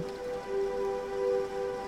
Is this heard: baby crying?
no